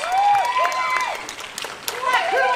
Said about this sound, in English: Give the biggest round of applause to Jason Patric. Make him feel welcome to Texas.